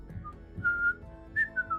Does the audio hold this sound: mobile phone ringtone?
no